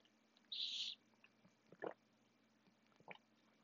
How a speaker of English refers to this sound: If you heard that, I'm sorry. Like, very sorry. Because I hate hearing people drink water. But the homegirl is thirsty, so you're gonna have to deal with it.